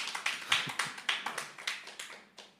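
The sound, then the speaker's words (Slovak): Light applause from a small audience for the speaker's partner during a Slovak Bible reading: a dozen or so distinct claps in a loose, uneven rhythm, sparse rather than a full ovation, moderately quiet, with no voices. “Dajte potlesk mojej polovičke, je perfektná.”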